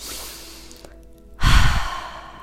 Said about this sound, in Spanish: Tomé una respiración profunda